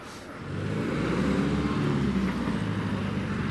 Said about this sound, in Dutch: Er komen de hele tijd zware voertuigen voorbij. Ja, natuurlijk. Ja, dus, het hoort bij deze divisie of dit bataljon eh, transport en bevoorrading.